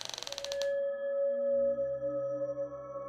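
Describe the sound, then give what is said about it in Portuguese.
A secret door creaks open: a quick burst of ratcheting clicks gives way to a long, steady mechanical groan over a low rumble, with no voices. “Ela funciona igual a porta que você abriu lá no quarto com o espelho.”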